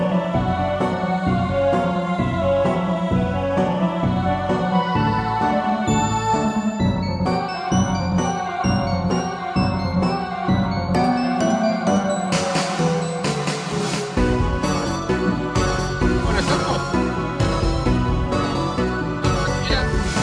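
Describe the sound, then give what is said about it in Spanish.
The theme music of the Mar Rojo Investiga segment on Más Rojo Radio plays alone at full volume, a rhythmic, steadily pulsing tune with layered instruments that grows fuller and denser in its second half. “Bueno, ¿cómo extrañaba esa musiquita del Mar Rojo Investiga, eh?”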